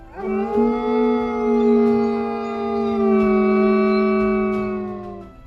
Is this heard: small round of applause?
no